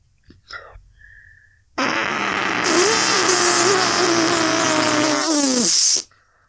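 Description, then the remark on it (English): A voice makes one long, loud, buzzing raspberry imitating a fart, sustained for about four seconds with two overlapping pitched layers, following a few faint clicks and breaths. “It was like two fart sounds at the same time.”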